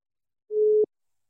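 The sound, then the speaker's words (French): A single short, steady telephone ringing tone sounds once at a clear, moderate level as an outgoing phone call is placed, then cuts off abruptly, with silence before and after and no voices. “je vous propose c'est qu'on téléphone à Cyril Duchesne”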